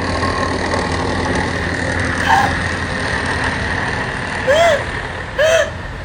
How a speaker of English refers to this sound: All right, so back up. They got a high speed pursuit chase with this Bobcat tractor right here.